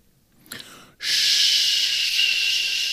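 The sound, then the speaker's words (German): A voice imitates the warp core of the starship Discovery: after a short breathy intake, a loud, steady, airy hiss starts abruptly and holds evenly for about two seconds without pause. “Kannst du mal gerade den Warp Can der Discovery nachmachen?”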